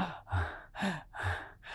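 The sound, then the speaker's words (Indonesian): A voice imitates heavy, labored breathing like a winded runner: four rapid, rhythmic huffing breaths in and out, fairly loud, with no talking. “dia berpikir, kenapa saya nggak ngangkat beban, saya nggak melakukan apapun, kenapa kok nafas saya kok berat seperti mm. orang lari gitu.”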